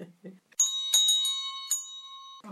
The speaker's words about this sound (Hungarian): Azért mondjuk el a hallgatóknak, egyrészt itt egy gerendát pakoló kis manó fejét nyitottuk föl, és alatta egy harang látható.